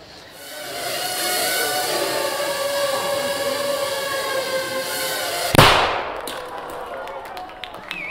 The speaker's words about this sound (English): Did you see that? That little bang is enough to penetrate the skull and destroy the contents.